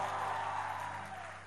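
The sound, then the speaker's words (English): A church audience, asked to clap and give God a loud shout of praise, fills the room with steady, dense clapping and shouts of praise, a continuous wash of crowd noise over a low hum that fades slightly toward the end. “All the clap, all the applause, all the glory, all the shout, all the accolades, it belongs to God and God alone can I get a clap in the house and give God your loudest shout of praise?”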